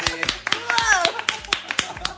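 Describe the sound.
A short burst of hand clapping to welcome a guest, about a dozen sharp, fairly loud claps at a quick, slightly uneven pace, while voices cheer and call out excitedly over them.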